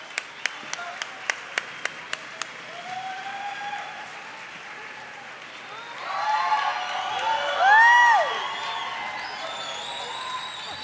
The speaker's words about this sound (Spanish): Un aplauso, por favor.